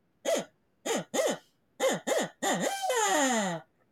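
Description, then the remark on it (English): Someone blows a hunting owl call: six short, rising-and-falling hoots in uneven pairs, then one long, wavering hoot that slides downward. Fairly loud, with no talking. “you got to put a lot of air through this, otherwise it sounds like a maimed duck.”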